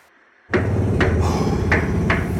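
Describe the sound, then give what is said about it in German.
Loud, steady construction racket from workers renovating a bathroom starts abruptly, with repeated sharp hammer-like strikes landing roughly every half second over a constant heavy rumble. “Der Umbau unseres Badezimmers. Ein Krach, der uns durch und durch ging.”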